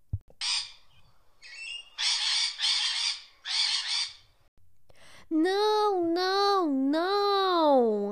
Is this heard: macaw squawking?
yes